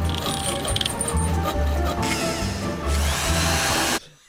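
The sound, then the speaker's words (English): A power drill whirs in sustained bursts amid clattering construction noise, the loud grinding rising and falling for about four seconds before cutting off abruptly. “That sounds like the, the Biden Gaff factory under construction.”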